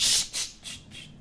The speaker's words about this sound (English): Ooh, someone pissed off the dog. Uh, there's another dog barking. She doesn't even know what's going on. Ah, she just heard something barking. She's Yeah. like, "Oh fuck yeah, I'm gonna bark too." Yeah, she's barking in solidarity.